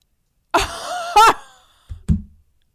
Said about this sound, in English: Sorry, I just banged on the table.